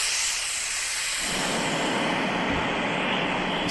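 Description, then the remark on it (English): Steady rushing of beach waves played as a nature sound from the Calm relaxation app, a broad hissing wash that swells fuller and deeper about a second in and keeps roaring evenly, fairly loud, with no voices. “I prefer the, um, listening to sort of like the nature sounds.”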